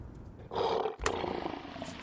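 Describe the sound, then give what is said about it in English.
A lion roars loudly, a deep rumbling growl that swells in, briefly dips, then surges again and carries on for a second or so. No one speaks. “I'm sorry to bother you, but the lion's now rubbing me in batter and starting a deep bad fryer.”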